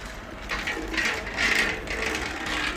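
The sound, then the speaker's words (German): A folding white cane snaps open with a run of sharp mechanical clicks, segment after segment locking into place in a quick, fairly even rhythm, with no one speaking. “Blindenstock klappt auf.”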